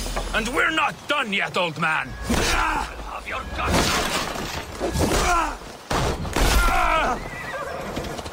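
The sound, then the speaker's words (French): Loud, chaotic battle sounds from a 2020 Viking video game set in England in 873: horses whinny and clatter, warriors shout and groan, and heavy crashes and thuds pile up without a break. “Et en 2020, le jeu de Viking, ça sonne comme ça.”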